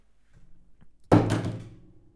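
A mobile phone topples over and hits a hard surface with a single sharp thud, followed by a brief rattling clatter that fades within about a second. Faint low rustling comes before it.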